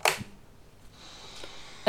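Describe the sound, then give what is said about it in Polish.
A sharp mechanical click from a radio's four-position band selector switch (FM, MW, SW1, SW2) on the right side of the device, then faint static hiss from poor reception rising in the background before a second crisp click at the end. “Na lewej ścianie urządzenia nie ma zupełnie nic, natomiast na prawej stronie, bliżej przodu oraz od góry, znajduje się pokrętło do głośności, które brzmi tak oraz czteropozycyjny przełącznik służący do wyboru zakresu.”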